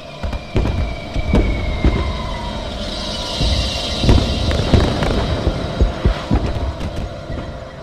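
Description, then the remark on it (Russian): Distant cannon fire from the broadside guns of a pirate flagship at sea: a string of dull, irregular booms with low rumbling thuds, rolling over a steady background rumble and faint high whine, with no voices. “Над морем прокатился далекий глухой гул. Это грянули бортовые канониры пиратского флагмана.”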